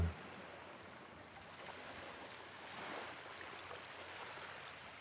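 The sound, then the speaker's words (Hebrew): Steady ocean surf washes continuously, a broad hissing roar with a gentle swell around the middle, soft and enveloping with no voices. “לאט לאט אתם יכולים להעביר את תשומת הלב שלכם, הצילים של הים, לגלים.”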